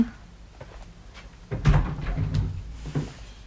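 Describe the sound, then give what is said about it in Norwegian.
A door is opened to let in a cat that had been scratching at it, with a cluster of low wooden thumps and knocks as it swings and bumps, following a short stretch of quiet room noise. “Jeg må bare slippe henne inn. Hun kan ødelegge den døra.”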